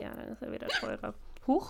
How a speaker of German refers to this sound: Gesundheit.